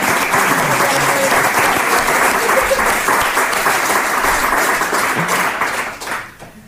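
An audience applauds steadily for several seconds for a person from Argentina, a dense, loud wash of many hands clapping that holds level and then tapers off quickly at the end.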